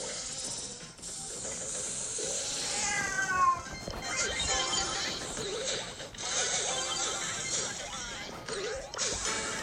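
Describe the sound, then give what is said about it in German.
A pet cat, just woken up from snoring, meows loudly and agitatedly, with harsh, wavering yowls that rise and fall over a busy, noisy background, continuous through the whole stretch. “Das ist meine Katze, die schnarcht. Oh, ich habe sie gerade geweckt, weil wenn sie zu laut schnarcht.”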